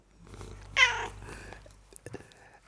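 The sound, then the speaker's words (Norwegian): A person imitates a cat's meow to answer a question, where one meow means yes and two mean no: one loud, high-pitched, drawn-out mew, followed by softer, fainter vocal noises. “Da er det ett mjau for ja og to mjau for nei.”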